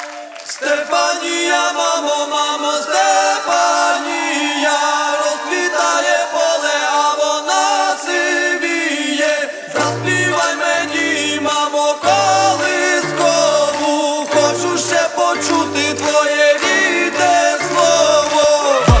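A loud, dense Eurovision pop song plays with layered melodic lines and a bright, full sound. About halfway through, a deep bass beat kicks in with steady, punchy pulses.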